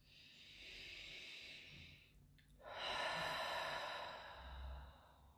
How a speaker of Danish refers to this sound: Og så trække vejret dybt.